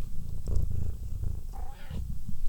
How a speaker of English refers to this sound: She meowed. I don't. I, she also purred, so maybe she likes Binley.